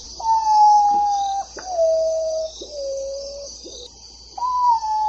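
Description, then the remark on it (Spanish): A potoo (pájaro estaca) calls: a slow series of long, mournful whistled notes, each stepping lower than the last, before a higher note starts again, over a steady high insect drone. “Para que no les ocurra, queremos que escuchen el canto del pájaro estaca y así lo podrán reconocer si algún día tienen la bonita experiencia de escucharlo.”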